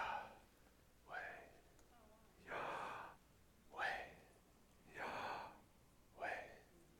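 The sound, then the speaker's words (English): Slow, deep breaths, with about three audible in-and-out cycles, each breath a soft, airy rush separated by short pauses, with no talking. “So breathe in, Yahweh.”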